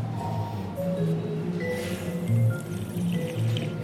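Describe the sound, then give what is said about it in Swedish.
Someone draws air through a mouthful of wine, whistling inward so it bubbles on the tongue, making a continuous bubbly slurping and gurgling that lasts a few seconds with no talking. “Så, som du visslar, fast inåt. Jaha. För då får du att det bubblar lite på tungan.”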